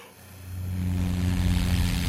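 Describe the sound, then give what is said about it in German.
A steady, droning airplane-like hum builds over about a second and holds, with low buzzing harmonics like a propeller engine; it's an imitation made by blowing rather than a real aircraft. “Wenn ihr mal eine Folge aufnehmen solltet, in der ein Flugzeug äh, fliegen muss, äh, mhm.”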